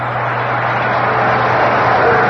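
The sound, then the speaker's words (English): A large baseball stadium crowd at RFK gives Frank Howard a standing ovation, cheering and applauding in a sustained, loud roar of clapping and voices that holds steady and swells slightly toward the end, with no one speaking over it. “Got a standing ovation the first time up, and he'll get one again.”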